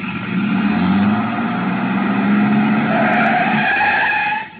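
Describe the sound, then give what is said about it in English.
A truck engine in an alley is started and roars loudly while tires skid and squeal in a long, continuous screech, holding steady for several seconds before cutting off abruptly. “He turned over the engine and switched on the lights before I could get clear.”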